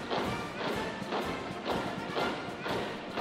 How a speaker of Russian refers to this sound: Ритм марша, как правило, попадает в ритм четких шагов. Ну, приглушим егерский марш, который сейчас звучит, и добавим тех самых шагов